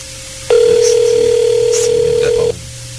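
A loud, steady telephone dial tone sounds without a break for about two seconds, then stops abruptly, over a faint low background hum.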